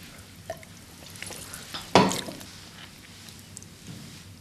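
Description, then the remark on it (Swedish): Quiet fizzing hiss of carbonated mineral water runs throughout, with a single louder, sharp sip or slurp about midway as someone drinks. No one speaks. “Det var mineralvatten va?”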